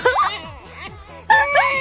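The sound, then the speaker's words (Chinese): A pretend wailing, sobbing cry with wavering pitch, rising and falling in moaning bursts; it dips briefly in the middle, then returns louder and more strained for the final half second. “假装有哭声”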